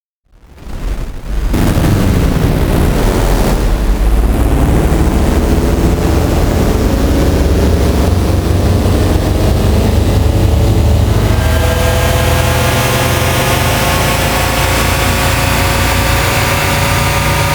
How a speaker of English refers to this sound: The engine startup sequences boom to life and give off a mild glow around their edges as they settle into a low hum